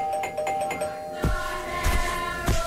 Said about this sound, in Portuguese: E tocam à campainha.